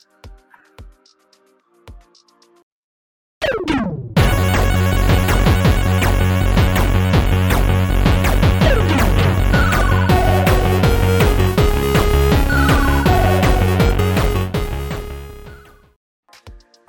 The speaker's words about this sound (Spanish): Está mamona la canción. Ajá. Está mamoncilla. Está medio rara.